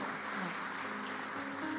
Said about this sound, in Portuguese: Vamos aplaudir, gente.